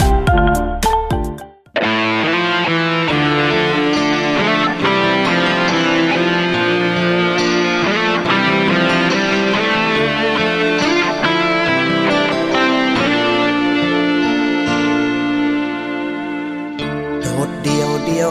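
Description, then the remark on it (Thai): A song played during a music break in a radio program plays loud and full, with dense sustained harmonic instrumentation and steady rhythm throughout, after a brief noisy burst at the start; no talking is heard. “แต่จะมีอะไรบ้างนั้น ไว้เรามาติดตามกันในช่วงหน้าสำหรับช่วงนี้เรามาพักฟังเพลงจากทางรายการแล้วกลับมาพบกันค่ะ”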